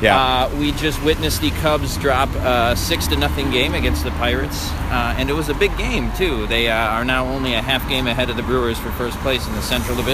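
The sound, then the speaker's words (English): Steady street traffic on Irving Park rumbles and hisses at about 11:40 p.m. on September 25th, underneath a man talking continuously while walking down the street, the vehicle noise forming a constant low wash without distinct pass-bys standing out. “We're walking down Irving Park right now, and traffic is uh, bumping here at 11:40 uh, uh, p.m.”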